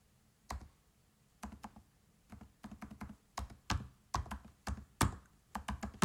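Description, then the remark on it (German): Someone types on a computer keyboard in uneven bursts, crisp clacking keystrokes with short pauses between runs, with no voices. “ja, Computertastatur.”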